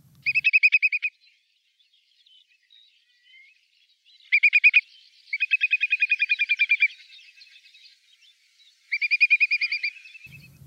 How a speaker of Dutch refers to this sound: Ik vind alleen het woord vind ik al prachtig, maar ik ben ook benieuwd hoe, hoe de regenwulp klinkt. En dat is dus zo.